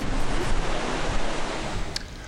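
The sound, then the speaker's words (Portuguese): Ocean waves break in a continuous, rushing roar of surf, loud, with a little wind noise and no voices over it. “É contato com o mar, é deslizar sobre as ondas, sentir a energia de, da força da natureza, assim, é espetacular.”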